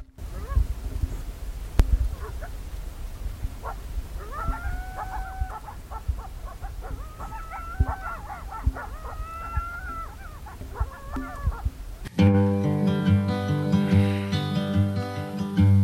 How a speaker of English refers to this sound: I'll leave you with a recording I took from my tent the previous night of the coyotes yipping